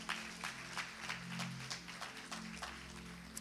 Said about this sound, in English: If you're with me, clap your hands for Jesus. Those at the back.